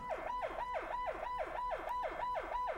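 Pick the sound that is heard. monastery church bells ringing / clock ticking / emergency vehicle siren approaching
emergency vehicle siren approaching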